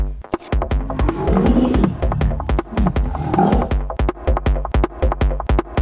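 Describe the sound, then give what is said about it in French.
A hungry cheetah's deep, rumbling roar swells and growls in long bursts, loud, as it gives chase, over a steady fast rhythmic thumping that runs throughout; no one speaks. “Le guépard, ayant très faim, rugit et le poursuit pour le dévorer.”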